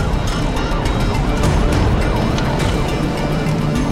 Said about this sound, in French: Oh, j'entends les flics.